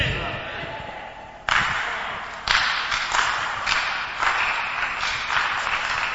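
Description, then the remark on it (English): An audience claps together, a dense wash of many hands with stronger accented beats roughly once a second, steady, with voices mixed in. “Those who are clapping, God is looking.”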